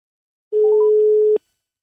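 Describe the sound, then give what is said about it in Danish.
A single ringback tone of an outgoing phone call to the EU press chief, Jesus Carmona: one steady, clear beep lasting under a second, heard alone with no talking, ending in a slight click. “Og øh, jeg tror, øh, jeg tror, vi ringer nu her.”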